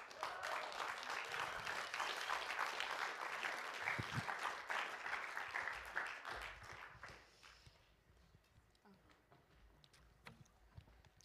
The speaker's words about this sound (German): gebt doch einen großen Applaus für Christina